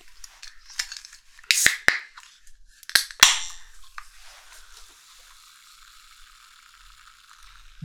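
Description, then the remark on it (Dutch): A large zero-sugar energy drink can being opened: a few sharp metallic clicks and snaps from the tab, then a loud crack followed by a fizzing hiss that fades away. No one speaks. “Ik ga hem eens openmaken.”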